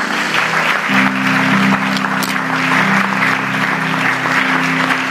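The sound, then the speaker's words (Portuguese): A church audience applauds to God, a dense steady patter of many hands clapping at an even loudness that fills the whole stretch, with a low sustained tone humming underneath. “Dá salva de palmas a Deus.”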